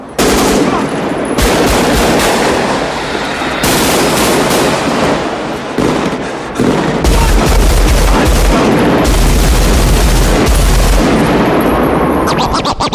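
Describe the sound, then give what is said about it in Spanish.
Sustained bursts of automatic weapon fire in a loud shootout scene from a bank robbery film, with rapid overlapping shots, booming low-end impacts and echoing reports filling the whole stretch. “esta escena de tiroteos que estamos escuchando ahora”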